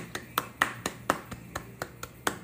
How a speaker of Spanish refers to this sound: El primero es nivel pasivo, los que aplauden pasivamente